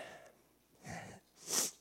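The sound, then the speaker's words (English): Two audible human breaths, a softer breath followed by a sharper, hissy one, with nobody speaking. “Breathing.”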